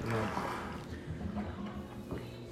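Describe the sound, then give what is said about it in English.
Water gurgles and sloshes steadily down a sink drain, caused by the washer, a continuous bubbling churn with low burbling tones that rise and fall over a couple of seconds. “that's because of the uh, washer. Okay. Don't worry about it. It won't shoot up water.”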